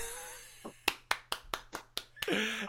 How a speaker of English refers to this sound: I hope that was you clapping because if there's anyone else in this world that's actually clapping right now, I, I, fear for the future of uh, humanity.